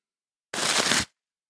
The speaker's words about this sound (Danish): Men, men øh, inden vi snakker videre, så tænker jeg, så skal du have lov til at, at flå papiret af nummer 5.